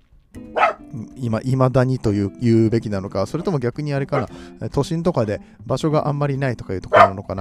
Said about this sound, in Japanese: 犬がうるせえ 犬の声入ってんのかな、これ。